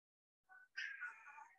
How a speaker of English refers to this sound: Um, now my cat's gonna start making noise.